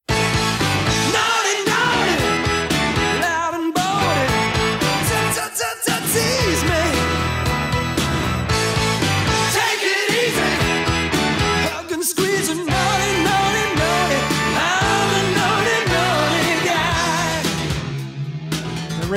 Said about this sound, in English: his first single, and it was a minor hit, but not nearly what was in store for him. Here's a little bit of the first song he released. Maybe you'll remember it. I did sort of, but I never knew it was this artist.